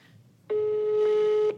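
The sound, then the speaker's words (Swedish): A single steady telephone ringback tone of an outgoing call from Stockholm to Borås sounds for about a second, clear, then cuts off, with faint background hiss before it. “Vi ringer henne, för ja, om det är någon det.”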